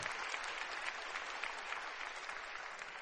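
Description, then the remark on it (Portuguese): An audience applauds steadily for standing members who took part in sports, a dense wash of many hands clapping at even loudness throughout, with no voices standing out above it. “Aplaudo esses irmãos aí, porque não são fracos, não.”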